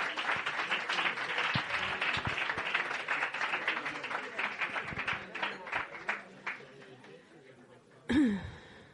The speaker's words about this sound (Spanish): Aplauso fuerte.